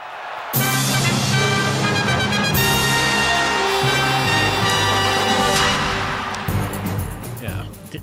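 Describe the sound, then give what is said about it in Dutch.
A rearranged 1995 version of a Dutch TV sports-broadcast theme tune bursts in after a brief pause, playing loud sustained brassy fanfare chords over a driving rhythm, then shifting into a new section near the end. “Eh, ik ga hem even laten horen, want de muziek is in een ander jasje gezet.”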